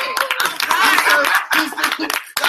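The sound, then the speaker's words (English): A crowd claps steadily for a couple of seconds, dense overlapping hand claps with a few chuckles and voices mixed in, fairly loud throughout. “I, I'm going on seven years of marriage Right now, y'all give me hand clap.”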